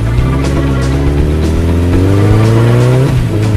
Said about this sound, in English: I love a woman with a motorcycle. Get on. A bike is always my first choice.